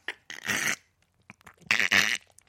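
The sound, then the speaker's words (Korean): On the radio show Mr. Radio, comedian Yoon Jung-soo imitates a frog's croak with two loud, raspy bursts, each about half a second long and separated by a short pause. “좀 울어주시겠어요? 개구리 소리로?”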